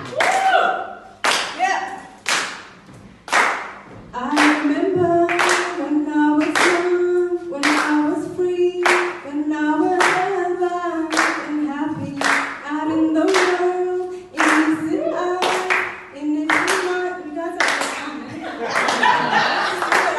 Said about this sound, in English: You can start clapping now.